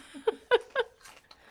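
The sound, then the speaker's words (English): Three short, crisp crunches in an even rhythm, fairly loud, of someone eating chips as a savory snack, followed by quieter faint rustling. “Crunchy, crunchy, crunchy, crunchy.”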